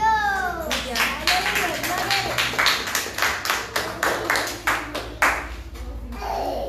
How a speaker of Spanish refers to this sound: Gloria al Señor. A su nombre. A su nombre. Palmas a Jesucristo.